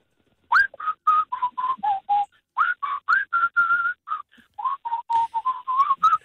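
A caller whistles over the telephone, a quick run of short, clear notes, starting and stopping in rapid bursts at a steady volume. The tone sounds thin and narrowed by the phone line.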